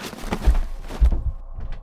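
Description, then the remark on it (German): A door being forced open: two heavy, booming blows about half a second apart, followed by a softer knock and some rattling. No one speaks. “Fuck, die wollen jetzt die Tür aufbrechen.”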